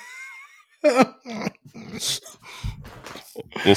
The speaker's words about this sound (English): For those of you not listening, I am talking through a toilet paper roll.